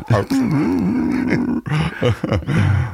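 A dog gives a long, wavering, pitched cry, followed by a few gruff, throaty bursts of barking, loud and fairly continuous over the few seconds.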